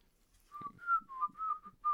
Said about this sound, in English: I can whistle. I can whistle uh, three different types of ways.